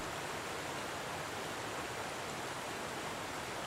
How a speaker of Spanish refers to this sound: Hoy en Confama Radio, entre nuestros temas, tendremos un río muy importante de Antioquia. Por eso queremos comenzar con este sonido hermoso que siempre nos recuerda la vida.